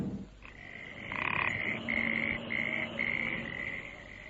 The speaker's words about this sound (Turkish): Gelenler önce kurbağa sesinden başka bir şey duymadılar.